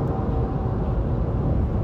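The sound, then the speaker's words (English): A truck rumbles steadily on the road, a loud, continuous low engine and road drone with no pauses and no voices over it. “Sorry, I wasn't sure this idiot truck.”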